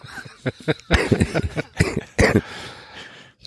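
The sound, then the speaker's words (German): A few short coughing bursts in quick succession, followed by a soft chuckle-like exhale; no clear speech. “Sorry, kurz gehustet.”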